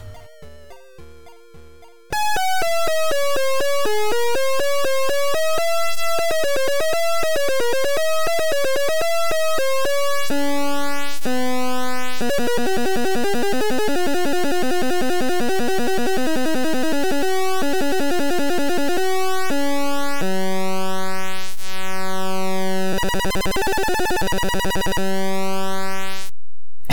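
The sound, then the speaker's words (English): Title music from a 1985 ZX Spectrum 48K video game published by Insight, played only through the Spectrum's internal beeper speaker: buzzy one-bit chiptune with dense harmonic square-wave tones, rapid arpeggiated melodies and warbling pitch runs, ending in steady sustained buzzing chords at a constant loud level. “it uses only the Spectrum's internal beeper speaker.”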